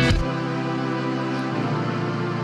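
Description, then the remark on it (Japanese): A lush string section from a song holds sustained, violin-like chords, swelling in at the start and shifting to a new chord partway through, steady and fairly loud with no voices. “まず感想は、えー、ここでストリングスと呼ばれる、いわゆるバイオリンみたいな音が入ってたりしますね。”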